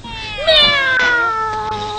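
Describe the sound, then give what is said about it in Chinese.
A cat lets out a long, drawn-out meow that rises sharply and then slides slowly downward in pitch, loud and tonal, lasting well over a second with no talking over it. “我把猫哄走，你先睡吧”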